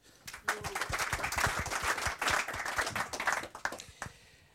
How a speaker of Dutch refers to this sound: Een warm applaus voor Thomas Rup.